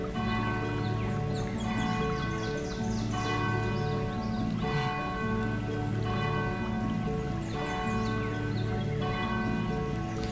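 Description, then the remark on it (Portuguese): Bells ring continuously in a dense, overlapping peal, with bright struck tones repeating in waves over a sustained resonant hum. No one speaks. “Ouça os sinos tocando.”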